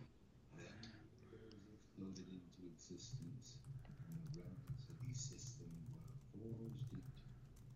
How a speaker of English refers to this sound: Rubik's Cube.